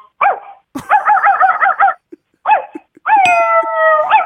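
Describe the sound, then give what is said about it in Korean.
A person imitates a puppy as a requested animal-sound impression to win a gift: a quick yelp, then a rapid string of high yapping barks, a few short squeaks, and a long, drawn-out whining cry at the end, fairly loud. “개구리 좋아하고 또, 또 있어요? 강아지요? 강아지.”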